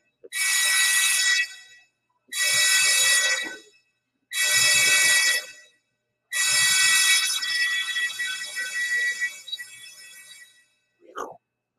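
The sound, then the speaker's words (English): A loud, piercing electronic emergency alarm on a ship sounds during a drill, blasting in four long bursts separated by short gaps, the last one trailing off into a brief murmur of background voices. “I had no idea that was going to be that loud here, folks and now they're explaining that that was the emergency signal.”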